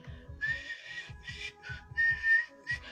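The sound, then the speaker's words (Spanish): A voice imitates a loud crowd of youths whistling from buses stopped at traffic lights while celebrating a Mexican national team win, with sharp, piercing whistle tones repeated in quick bursts over a rumbling low background, several overlapping shrill blasts in a row. “Pues total de que ya nos subíamos en el camión, se paraba el camión en un, en un alto y empezaban a chiflar los porros”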